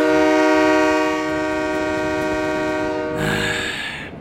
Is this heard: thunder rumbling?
no